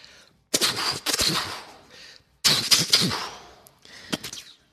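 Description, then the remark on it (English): A voice imitates machine gun fire with a rapid, rattling burst of spitting, clicking noises, pausing briefly before a second loud burst and a shorter trailing one. “I'll do a machine gun.”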